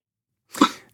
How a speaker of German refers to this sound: Ähm, und jetzt hat man ein schönes Schnaufgeräusch gehört gerade. Das war so ein bisschen typisch dafür auch.